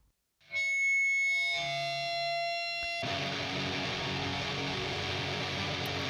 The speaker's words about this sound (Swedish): Frasiga gitarrer.